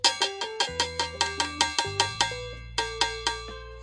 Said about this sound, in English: Um, where's the thing where I do the bell? Where's that? Here we go. There's the seatbelt moment. I gonna do it so loud.